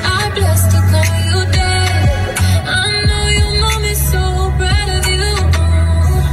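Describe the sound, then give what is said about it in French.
A woman sings a slow, melodic love song with sustained, wavering notes over steady instrumental backing, loud throughout with no pauses; a recording of her own singing played inside a car. “Elle l'a chanté puis euh, elle a diffusé ça dans la voiture.”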